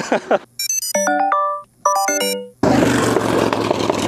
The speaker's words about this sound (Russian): А, это вот не мы, это другой проехал мимо скутер, очень шумный.